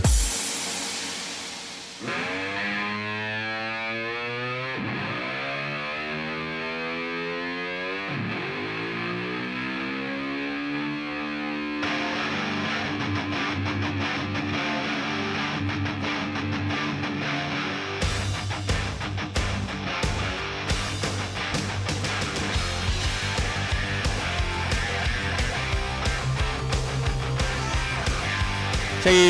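Heavily distorted rock music opens with swooping, bending guitar notes, then builds into a dense, loud wall of sound as pounding drums kick in for the second half.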